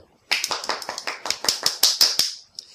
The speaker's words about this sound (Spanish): Perdón, yo espero que cuando nosotros aplaudamos aquí, ustedes estéis aplaudiendo en vuestras casas, playas, piscinas, cárceles o incluso.